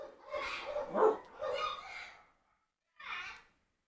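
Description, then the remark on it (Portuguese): A dog barks in a few rough, breathy bursts, the first stretch longer and strained, then a pause and one short final bark. “Olha isso, é cachorro, é, é, pessoa falando, é o passarinho gritando.”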